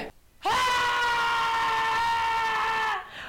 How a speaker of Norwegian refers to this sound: Kan du vise hvordan du skriker? Kan du gå bort fra mikrofonen og skrike sånn som du skriker? Bare snu deg, jeg vil høre.